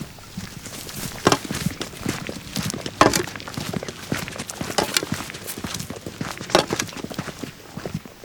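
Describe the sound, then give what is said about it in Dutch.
Steady footsteps crunch along an outdoor surface at a walking pace, moderately loud, with a faint background ambience and no talking. “Laten we er maar even naartoe lopen.”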